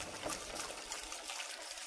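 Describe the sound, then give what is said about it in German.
A steady, soft trickle of oil being poured generously into a finely mashed mixture, a continuous gentle stream with a slight splashing texture, lasting a couple of seconds with no voices. “Dann einen guten Schuss Öl. Damit meine ich wirklich einen guten Schuss.”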